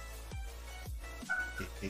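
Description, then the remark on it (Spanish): A dog gives a couple of short, deep barks, then a high, thin whimper. Faint voices murmur in the background. “Qué, perro, qué bonito, qué hermoso.”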